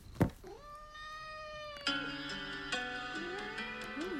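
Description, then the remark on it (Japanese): A sharp thump, then a cat lets out a long, drawn-out meow followed by more wavering, insistent meows, fairly loud, with no talking. “猫ちゃんだったねありがとね”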